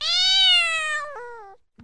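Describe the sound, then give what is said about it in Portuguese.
A cat lets out a single long, clear meow, fairly loud, its pitch dipping slightly toward the end, followed by a brief soft click. “Ou será que foi um gatinho miando?”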